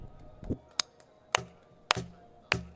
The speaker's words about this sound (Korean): 이거는 박수가 굉장히 중요한 곡이에요. 처음에 어, 박자를